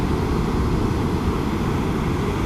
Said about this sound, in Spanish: escucha este mar. Este mar es para ti. Estas olas que rompen son para ti.